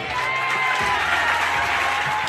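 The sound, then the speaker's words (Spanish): A crowd of prison visitors claps steadily and densely throughout, a continuous wash of applause with faint shouting mixed in as they call out for bread. It holds at an even, fairly loud level for the whole moment. “¿Quiénes son los que están aplaudiendo? ¿La visita?”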